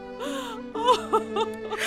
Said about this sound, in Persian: بیایید کودکانم بیایید در آغوش من گریه نکنید